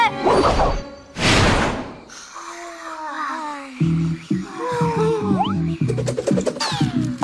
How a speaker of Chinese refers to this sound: 哇哦！这声音是狗狗跳舞机，现在是大半夜。